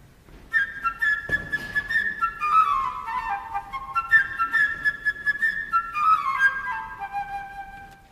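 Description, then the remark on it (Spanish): A flute plays the bird's theme from Peter and the Wolf, a bright, high, chirping melody with quick trills and falling runs, heard twice in a row over faint accompaniment by the Radio Televisión Española orchestra conducted by Sergio Comisiona. “El pájaro por la flauta.”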